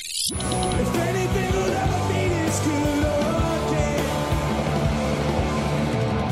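A rock band plays live at full volume, dense distorted guitars and pounding drums filling the mix, with a roaring, slightly distant concert-hall quality throughout.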